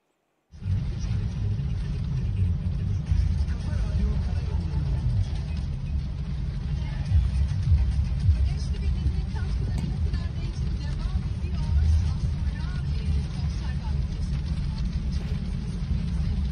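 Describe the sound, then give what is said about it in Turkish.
Two buses drive alongside courier motorbikes through a storm, shielding the couriers from the wind; a steady heavy roar of engines and wind that stays loud and unbroken from start to finish. “Evet, hakikaten burada benim kahramanlarım var kuryeleri fırtınadan koruyan otobüs suretinde iki koruyucu melek.”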